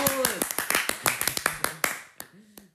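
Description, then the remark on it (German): A few people applaud with quick, uneven, sharp claps that thin out toward the end, while short vocal sounds ring out at the start and again at the close. “komm, darauf machen wir einen Applaus!”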